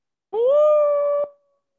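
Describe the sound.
A person imitates a wolf howl with one short, steady, sustained tone that rises slightly at the start and then holds. It's clear, with no other sound around it.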